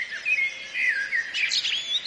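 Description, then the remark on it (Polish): A Eurasian blackbird sings a run of clear, fluting whistled phrases that rise and fall, ending in higher twittering notes, with no talking over it. “kos rzeczywiście, prześliczny głos, który można by oddać słowami triuri, triuri, triuli”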